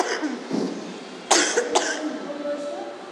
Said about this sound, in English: I'm sorry, I have to cough again.